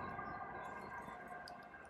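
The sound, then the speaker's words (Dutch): An ambulance siren wails steadily as it passes by, a faint sustained tone with no talking over it. “Um, nou, we gaan nog over hebben met even ambulance voorbij komen.”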